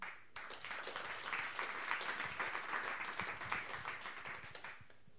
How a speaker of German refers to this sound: Ich freue mich, dass Sie heute alle da sind und möchte Sie um einen herzlichen Applaus für François Höpflinger bitten.